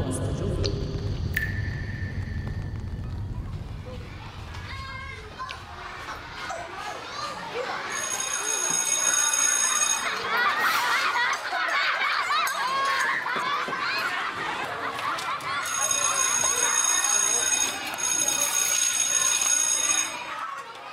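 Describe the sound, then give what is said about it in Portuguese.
A busy crowd of children shouts and plays at a real school, with lively chatter throughout, while a loud electric school recess bell rings continuously twice, first for a couple of seconds and then for about five seconds. “Provavelmente você pensou em crianças brincando, correndo, numa escola. Aquela campainha de recreio deu uma pista, né?”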